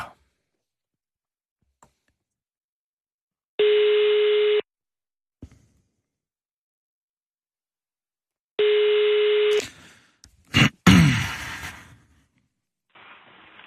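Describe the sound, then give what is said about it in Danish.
A telephone ringback tone sounds twice, each a steady one-second electronic burst separated by silence, followed by a sharp click and a brief rush of line noise as the call is put through to a telephone operator. “Du blir nu kopplad till en telefonist.”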